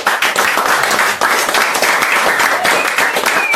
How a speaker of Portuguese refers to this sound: Aplauda ao Senhor.